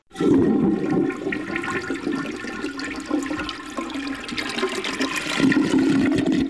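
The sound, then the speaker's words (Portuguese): A toilet flushes loudly, a steady rushing, gurgling roar of water that holds for several seconds before swelling again near the end. No voices are heard. “É, vale, vale um sonzinho de descarga aqui, né?”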